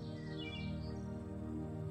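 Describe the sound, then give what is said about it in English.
A few high, quick chirps and tweets from birds in trees in spring flutter above a steady, sustained musical drone, soft in level. “And as you slowly stroll along, relaxing more and more deeply with each step you take, you may also notice all the birds in the trees”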